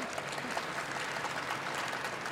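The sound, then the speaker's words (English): An audience claps steadily for the guests, a dense, even wash of many hands with no voices standing out, holding a constant moderate level throughout. “So, first, before we kick this off, let's have a round of applause for these incredible guests.”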